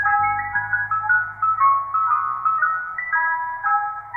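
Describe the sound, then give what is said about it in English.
A tinny, music-box Mister Softee ice cream truck jingle, originally written in 1960 for a radio advertisement, plays a bouncy melody over a steady low hum, loud, with no voices. “an ice cream cone with a face on it and a bow tie, and that jingle”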